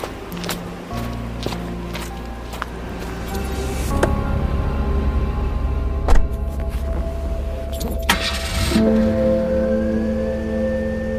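A few sharp clicks and a jangle of keys, then a car engine turns over and settles into a steady low rumble that continues, with no one speaking.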